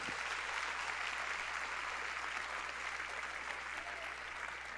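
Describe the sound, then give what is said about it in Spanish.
An audience applauds the King of Kings together, a dense, steady wash of many hands clapping at once that holds at an even loudness for about five seconds, with no voices rising above it. “Dele fuerte el aplauso otra vez al Rey de Reyes.”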